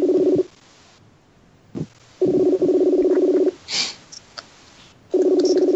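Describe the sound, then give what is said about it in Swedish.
A telephone line being dialed as someone places a call, with steady buzzing tone bursts separated by quiet gaps and a few short clicks and beeps between them, clear with no talking. “Nu ringer jag strutarna.”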